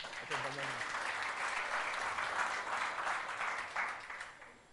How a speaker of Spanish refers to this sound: Un aplauso para mi mamá, acá está,